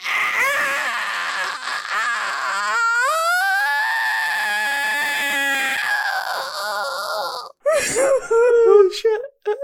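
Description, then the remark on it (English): A voice imitates the strained, high-pitched wheezing of a child allergic to peanuts after eating peanut butter, a long squeaky wavering whine that breaks off briefly, then returns in shorter raspy gasps, fairly loud. “a perfect rendition of what that kid sounded like when he ate peanut butter and was allergic to peanuts.”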